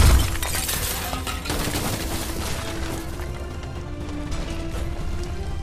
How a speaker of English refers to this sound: This beam slams into the back of the house, and the back of the house, where you are in the kitchen, explodes in action.